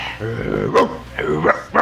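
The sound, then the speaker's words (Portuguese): A person imitates a dog, letting out a few rough, voiced barking sounds in quick succession, fairly loud, with no other talk. “Porque você é um cachorrão.”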